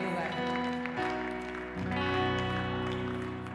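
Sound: audience applauding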